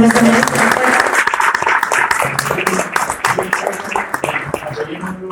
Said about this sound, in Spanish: Un aplauso, señor